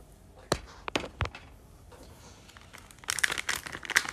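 Rolling paper crinkles and rustles as a joint is rolled, starting with a few sharp scattered taps and crackles, then building into a denser burst of crinkling near the end. No one speaks.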